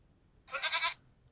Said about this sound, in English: oh, goat! What are you doing here, you rascal? With your little cloven hoofs.